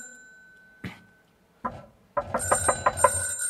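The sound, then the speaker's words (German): A doorbell is rung impatiently by someone at a door that no one opens: first a short isolated ring, then another, then a rapid burst of repeated insistent rings, fairly loud, with no voices. “Ich läute und läute ohne Unterlass.”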